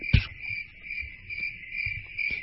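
A cricket chirps in a steady, continuous high-pitched trill throughout, its shrill tone holding even, with a few soft low thumps underneath and no voices.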